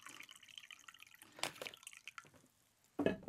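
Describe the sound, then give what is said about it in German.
Lukewarm water is poured into a glass, a trickling, dripping flow with small splashes that ends in a brief louder gush. No one speaks. “Ich habe mir nämlich auch lauwarmes Wasser mitgenommen, damit es sich so ein bisschen besser und schneller auflöst. Ich muss hier nochmal einschenken.”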